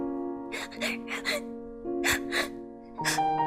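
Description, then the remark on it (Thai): A woman sobbing bitterly, with repeated gasping, shuddering breaths and quivering voiced wails in short bursts, over a sustained tonal background hum. No words are spoken. “หัวใจของฉันคงแตกสลาย เธอได้คิดขณะร้องไห้สะอึกสะอื้นไปด้วย”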